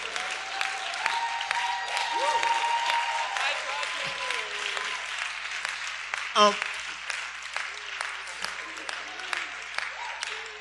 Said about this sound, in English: and I think the applause is because so many of you know that what I said is true.